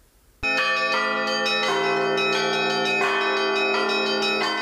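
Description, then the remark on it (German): The bells of the Russian Orthodox church in Bad Ems ring loudly in a special chime calling to the Christmas service, a dense, overlapping peal of several bells struck in quick succession with a sustained ringing hum beneath, no voices present. “Mit einem besonderen Glockenspiel ruft die russisch-orthodoxe Kirche in Bad Ems zum Weihnachtsgottesdienst.”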